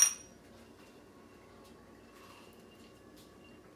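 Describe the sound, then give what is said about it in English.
A single bright clink of shot glasses tapped together in a toast for a third shot, sharp at the very start, then fading into a low, steady hum with no talking. “Here's the third shot right here. Cheers.”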